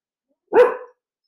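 dog barking

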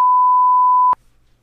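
censor beep

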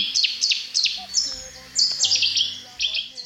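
cetti's warbler song

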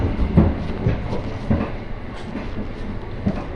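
train running on rails

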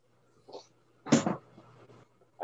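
hard cough

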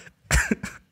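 sneeze or cough

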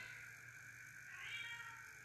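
cat meowing

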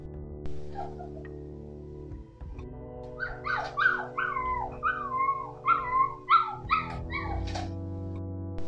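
dogs barking and howling

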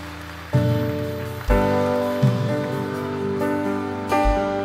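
audience applauding

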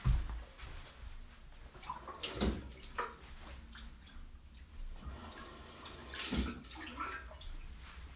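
water running

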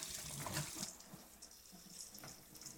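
tap water running

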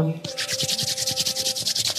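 hands rubbing together

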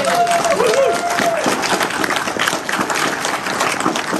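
audience applause

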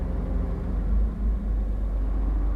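inside a moving car

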